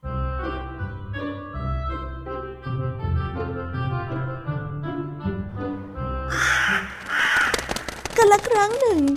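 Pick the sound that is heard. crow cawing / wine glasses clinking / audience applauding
crow cawing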